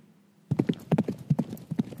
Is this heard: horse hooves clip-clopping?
yes